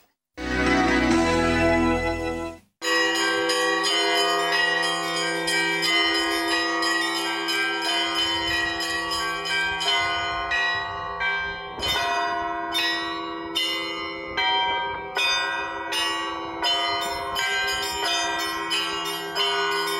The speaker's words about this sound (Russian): Да, теперь в том храме звонят совсем другие девчонки.